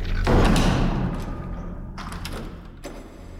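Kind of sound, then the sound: household object, door closing shut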